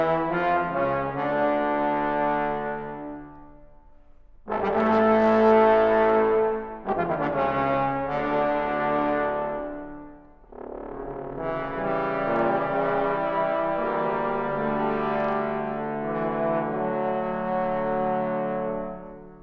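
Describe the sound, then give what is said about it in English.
An ensemble of young trombonists plays a slow, stately Bach chorale in rich sustained harmony, with phrases swelling and pausing briefly between chords, heard clearly and fairly loud with no talking. “maybe one of these young trombone guys is listening right now and they smoke a pipe.”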